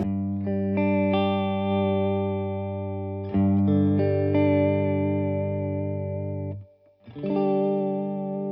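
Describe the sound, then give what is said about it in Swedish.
Sustained electric guitar chords played through a chorus/vibrato pedal with the dry signal removed, drenched in a wet, wobbling modulation with the pitch gently warbling; a brief drop-out near the end before the chord returns. No talking. “att man kan byta mellan korus och vibrato”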